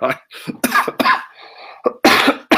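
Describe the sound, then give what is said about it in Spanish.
A loud coughing fit from a person with a throat infection: several harsh, rapid coughs in a row, a brief wheezy pause, then more forceful coughs bursting out at the end. “no me hagas reír, Juan Salvador, porque me da tos.”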